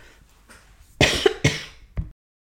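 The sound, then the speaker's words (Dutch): A short fit of coughing, three harsh bursts in quick succession, the last one weaker, with quiet background before and silence after. “Zo, dat was een, eh, een hoest.”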